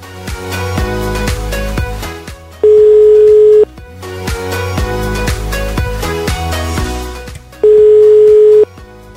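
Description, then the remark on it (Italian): Two steady, loud telephone ringback tones, each about a second long and roughly five seconds apart, sound over busy background music as a dialed call rings unanswered. “Ecco, suona libero.”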